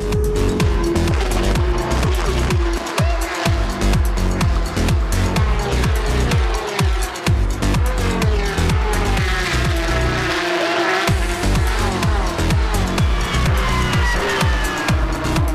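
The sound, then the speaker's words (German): A field of 29 Porsche Carrera Cup race cars roars around the Spa circuit in the Ardennes during race 2, a loud, continuous engine din with rising and falling revs, gear shifts and occasional tire squeal as the pack passes. No one speaks. “Auch hier wieder dieses grandiose Starterfeld der 29 Cup Porsche und dieser Sound, der die Ardennen veredelt.”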